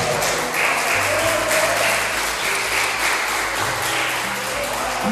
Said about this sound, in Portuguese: recebe da glória de Deus, aplaudir a Ele nessa glória.